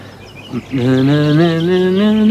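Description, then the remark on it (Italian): A single voice vocalizes with the mouth the slow opening melody of a piece of music still being written, a steady tone that glides gently up and down in pitch, following a short breathy sound at the start. “Boom, boom, boom, boom, è eh, la musica, la faccio con la bocca adesso.”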